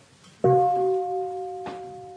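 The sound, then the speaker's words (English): A mindfulness bell is struck once with a light touch for a half sound, a warning that a full sound will follow, leaving a clear, steady tone that hangs in the air. A soft knock sounds partway through while the bell keeps ringing. “invite the bell to emit a half sound, half sound.”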